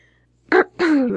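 A person clears their throat: a short, rough burst followed by a longer voiced 'ahem' that slides downward in pitch, with no other sounds around it.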